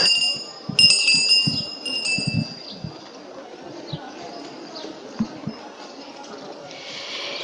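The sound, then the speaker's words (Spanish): The hand bell of a procession herald (muñidor) on Arquitecto Verges street rings in quick, bright metallic strokes for a couple of seconds, its high tone lingering and fading, while a crowd murmurs and talks underneath. “y ya suena el muñidor por arquitecto Verges.”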